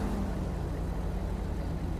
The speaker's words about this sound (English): Okay, tow is rolling up behind us for the uh, suspect vehicle, so thankfully we were able to get him stopped.